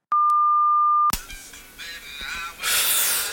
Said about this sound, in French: Bonjour, vous êtes bien sur le répondeur du Opération Bikini Vous pourrez enregistrer votre message juste après le bip sonore.